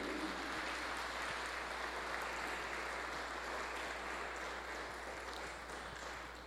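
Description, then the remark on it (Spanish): A crowd claps for the Virgin Mary in steady, sustained, dense applause for several seconds, holding an even loudness before tapering off slightly at the end. No one speaks. “Le damos un aplauso a nuestra Madre, la Virgen María.”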